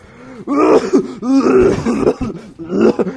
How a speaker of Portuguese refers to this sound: Ai, quase que eu tosso